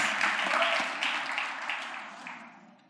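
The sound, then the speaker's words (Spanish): Steady applause from an audience welcoming a speaker, a dense crackle of many hands clapping together that holds for a moment and then gradually fades away. “Recíbanlo con un fuerte aplauso.”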